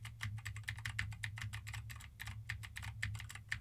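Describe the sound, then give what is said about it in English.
Rapid, steady typing on a mechanical keyboard with Gateron blue switches, sharp, clicky keystrokes running continuously over a low background hum with no voices, recorded as a microphone test. “Now I am typing on a keyboard with Gateron blue switches to see how much of my voice versus how much of the keyboard it picks up.”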